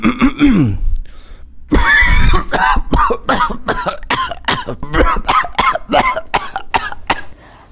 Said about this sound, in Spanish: Ah, pero este participante es la verdadera tos argentina.